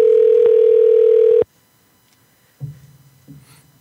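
A phone ringing on an outgoing call: one loud, steady electronic ringback tone for about a second and a half, then near silence with a couple of faint low buzzy noises.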